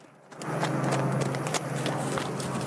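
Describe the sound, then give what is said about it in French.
Hooves of horses being evacuated from wildfires at Pournari, Greece, with thick smoke behind them, clopping in a steady, rapid rhythm, many overlapping hoofbeats from several horses over a constant low hum, all at a strong, even level after a quiet start. “Les villages continuent d'être évacués pour la sécurité des habitants ainsi que les animaux, comme sur ces images impressionnantes à Pournari, où des chevaux sont évacués avec l'épaisse fumée en arrière-plan.”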